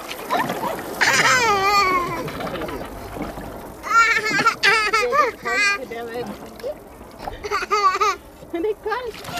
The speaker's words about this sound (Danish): fylder Michael et badebassin, hvor hans søn frygtløst kaster sig i det kolde vand